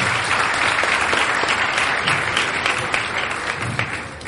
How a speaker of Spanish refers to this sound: Por favor, denle un aplauso a todos ellos. Muchísimas gracias.